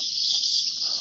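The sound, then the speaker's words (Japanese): A tsukutsukuboshi cicada calling in Sydney in hot midsummer, a loud, steady high-pitched buzzing drone that fills the whole moment without a break, alone with no voices. “つく帽子がいた。”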